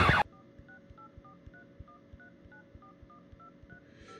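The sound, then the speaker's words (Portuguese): A rapid run of phone keypad tones as a number is dialed to make a call, a dozen or so short beeps at changing pitches in a quick steady rhythm, with no talking. “Cada tecla tem um, tem um som, né?”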